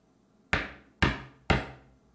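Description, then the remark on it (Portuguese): Three evenly spaced knocks on a wooden door, each a sharp thud with a brief ringing decay, about half a second apart, with nothing else around them. “Pouco tempo depois, Chapeuzinho pegou e bateu a porta.”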